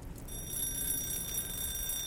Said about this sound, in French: Le réveil sonne. J'ouvre les yeux.